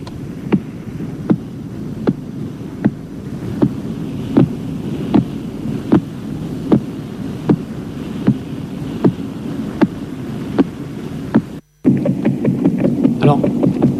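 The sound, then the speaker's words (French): Radio signal from the pulsar PSR 0329+54, which rotates once in about two-thirds of a second, rendered as sound: sharp, evenly spaced ticks about three-quarters of a second apart over a steady hiss and hum, ending with an abrupt cut into rougher noise. “c'est un pulsar qui s'appelle le PSR 030, 0329 plus 54, et qui fait un tour sur lui-même en environ deux tiers de seconde.”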